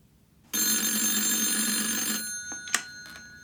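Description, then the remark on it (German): A telephone bell rings loudly in one sustained, harmonic-rich burst lasting under two seconds, then stops, followed by a couple of brief clicks as if the receiver is picked up. “Er blieb unbeweglich am Schreibtisch sitzen und wartete auf den Anruf seiner Frau.”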